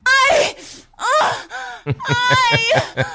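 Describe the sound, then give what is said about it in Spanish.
Eerie, drawn-out wailing cries rise and fall in several long, harmonic bursts, loud, with breathy moaning gasps between them and no clear speech, on a psychophony recording of ghost-like screams heard in an apartment. “los nuevos dueños lo llamaron porque escuchaban como un fantasma, escuchaban como gritos.”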